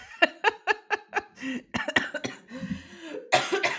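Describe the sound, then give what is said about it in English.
A person coughs repeatedly: a quick run of five rhythmic, voiced bursts, followed by rougher, more ragged coughs and a final harsh fit. “Sorry, you're gonna make me cough too.”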